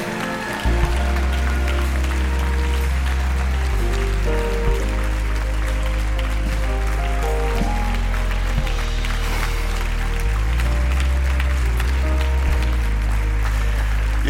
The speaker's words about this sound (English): I wish y'all would clap like you were excited about dozens of people. Can you just spread them out across the front? I bet if you'll keep clapping, they'll keep coming.